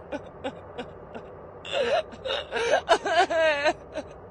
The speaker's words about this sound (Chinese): 当时劲松一栋民宅，一进那个楼门，就可以听到凄惨的哭声在耳边萦绕，